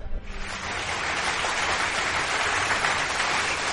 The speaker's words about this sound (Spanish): Bueno, pues tal como os comentaba hace un momentito, tenemos al otro lado del, del hilo telefónico, si no me equivoco, a Luis Cruz. Un aplauso para Luis Cruz.